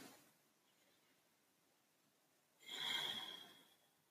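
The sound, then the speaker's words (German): An audible deep breath in and out during a guided meditation: a faint intake, a quiet pause, then a fuller airy exhale with a slight whistling edge that fades out. No one speaks. “Und dann atmen wir noch einmal tief ein und aus.”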